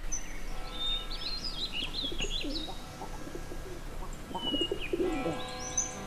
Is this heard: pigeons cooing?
yes